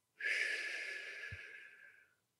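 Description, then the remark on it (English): A slow breath taken in through the nose with the mouth closed and blown out through pursed lips, as in a pursed-lip breathing technique, heard as one steady, airy hiss lasting about two seconds with a faint whistling edge, and no talking. “So for this technique, you breathe in through the nose with the mouth closed, like that, and then you breathe out through pursed lips in through the nose, out through pursed lips.”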